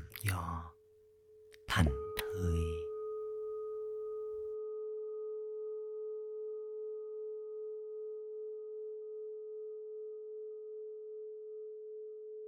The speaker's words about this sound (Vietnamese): tôi để cho âm thanh của tiếng chuông ngân vàng khắp cơ thể tâm trí trái tim và tâm hồn mình tôi hoàn toàn thư giãn thành thơi